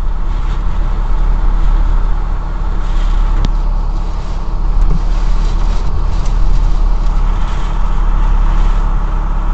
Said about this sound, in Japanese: 今あのおーすごい風だこれ結構今手で持ってるから分かりますこれ車揺れてるんですよ本当に